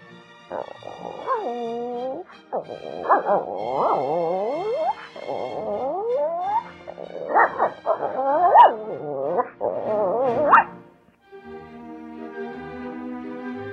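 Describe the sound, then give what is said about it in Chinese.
A person imitates a dog in a 'Lizhi Zoo' animal-imitation round, with a string of vocal barks, yips and whimpering whines, pitch sliding up and down in loud bursts over about ten seconds, then a softer steady tone at the end. “我模仿的是狗狗。”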